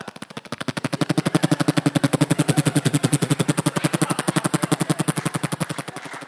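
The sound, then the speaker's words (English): A voice imitates rapid machine gun fire, a fast steady stream of sharp percussive bursts that holds loud for about six seconds before tapering slightly at the end. “Well, I would, I would, and I would, I could do the sounds of machine guns and things, which.”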